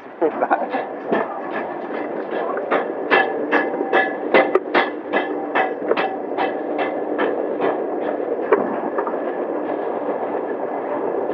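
A small diesel mine locomotive rumbles steadily in a coal mine, its engine drone overlaid with a run of regular metallic clacks from the wheels over track joints, continuous throughout with no voices.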